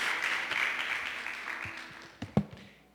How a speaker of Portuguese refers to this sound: Amém, queridos? Amém. Vamos dar uma salva de palmas para Jesus? Pode ser? Amém.